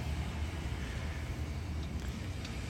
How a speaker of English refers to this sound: you'll hear in the background perhaps the uh, waves because I've got on the TV the uh, view of the Kahikili, Kahekili Marine Reserve off of Maui. And you're hearing the waves